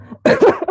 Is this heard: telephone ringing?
no